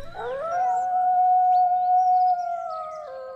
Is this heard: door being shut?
no